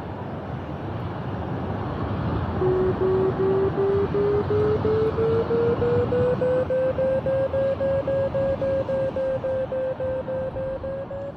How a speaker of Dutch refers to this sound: Ja, je hebt eh, twee kleine luidsprekertjes die aan de bril hangen en die geven het geluid eh, wat je als piloot zou horen door. Dus je hoort daar ook je vario in eh, brommen of piepen afhankelijk van de omstandigheden.